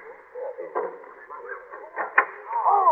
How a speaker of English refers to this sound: What's that? Sounds like someone rapping on the French door. There is someone standing outside It's a girl.